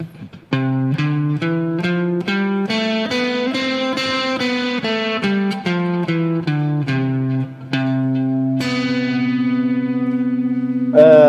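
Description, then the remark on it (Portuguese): A bright, distorted electric instrument plays a series of quick two-note intervals, each pair struck crisply, ending with a long sustained chord that rings out loudly, no voices present; the interval being played is a major seventh. “sétima maior? Sétima maior, perfeito.”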